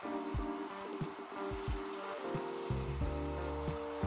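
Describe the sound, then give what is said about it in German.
A video game boat sails in one direction through water past islands, with steady rhythmic low splashes and a constant wash of water noise, layered under sustained tonal background music; no one speaks. “Ich schippe hier jetzt noch ein bisschen, aber dann hätte ich auch gesagt, war es das mit der Folge.”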